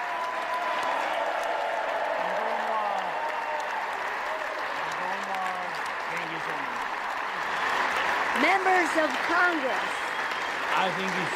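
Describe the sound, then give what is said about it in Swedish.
A large crowd in Congress gives a standing ovation of two to three minutes as Volodymyr Zelensky enters the chamber. The applause is steady for the whole stretch, a dense wash of clapping with scattered cheers and shouted voices rising above it, swelling a little louder toward the end. “I kongressen så blev det av, över två minuter, upp mot tre minuters stående ovationer då mm.”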